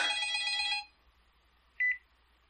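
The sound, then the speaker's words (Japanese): A telephone rings loudly in a bright, trilling burst that stops abruptly, followed after a pause by a short, quieter electronic chirp. No one speaks. “おいああ、電話でございますか。”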